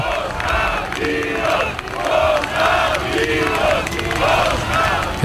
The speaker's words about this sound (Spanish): A la salida se han escuchado voces aclamando a Constantino y a su hijo Pablo.